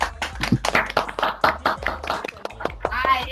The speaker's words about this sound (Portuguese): eu quero uma salva de palmas